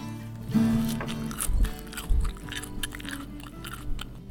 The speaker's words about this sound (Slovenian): Ok, za pauzo bom jaz pokazala zvok žvečenja solate.